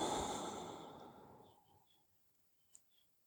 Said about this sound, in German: Ja, und jetzt kommt so ein Atmen, so ein Einatmen.